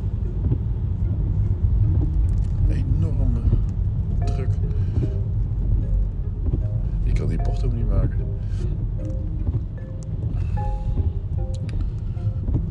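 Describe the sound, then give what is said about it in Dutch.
A large truck rumbles steadily and loudly through a very narrow street, the Siepseweg, its deep engine drone filling the whole recording, while people talk intermittently over the noise. “Dikke vrachtwagen. In een heel smal straatje.”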